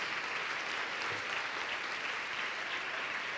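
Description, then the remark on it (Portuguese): A church audience applauds steadily in praise of the Lord, a dense, continuous wash of many hands clapping together at an even loudness throughout, with no voices standing out above it. “Vamos aplaudir mais ao nome do Senhor.”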